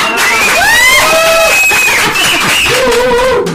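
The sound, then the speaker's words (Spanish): A loud crowd cheers and whoops with high, sustained shouts over a dense wash of applause, continuous for the whole stretch. “Echen los aplausos para que vean que traen porra.”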